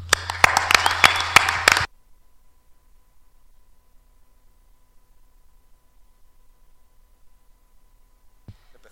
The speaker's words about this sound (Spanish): Así que un aplauso también para vosotros.